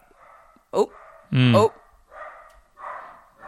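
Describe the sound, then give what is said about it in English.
A dog barks twice, a short yap followed by a louder, longer bark, while a person murmurs brief interjections around them. “sorry about the dog he's a regular fixture on this podcast don't worry sounds friendly”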